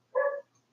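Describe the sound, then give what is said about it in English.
A single short dog bark rings out clearly, then quiet follows. No one speaks. “I'm sorry if you hear my dog barking.”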